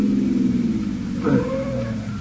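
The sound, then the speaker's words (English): A truck's brakes squeal in a brief, wavering high whine over a steady low engine rumble, swelling midway through before easing off as the vehicle slows. “The brakes. The truck is slowing down.”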